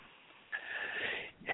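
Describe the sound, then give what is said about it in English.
A person crying takes a long, shaky deep breath into their tears, followed by a quick wet sniffle, quiet and tearful-sounding with no talking. “I'm going to invite you to just breathe into those tears. Let yourself just take a couple of deep breaths.”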